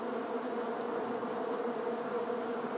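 bees buzzing

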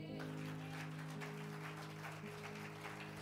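audience applauding

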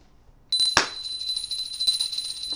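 small hand bell ringing

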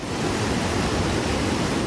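rushing floodwater torrent

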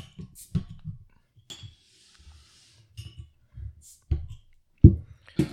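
beer bottle being opened

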